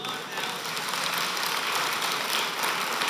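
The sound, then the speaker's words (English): Steady, dense hiss of heavy thunderstorm rain, a continuous rushing wash of sound at an even loudness throughout, with no distinct thunderclaps and no one talking. “If you're not hanging out with us today, we're in the middle of a thunderstorm, and it's just adding to the ambiance.”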